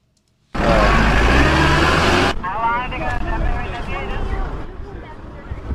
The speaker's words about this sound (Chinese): 斯里兰卡南部海岸汉班托塔港，韩国的 Globis 巨型滚装船缓缓靠泊。来自中国、韩国、日本的汽车从打开的船舱鱼贯而出。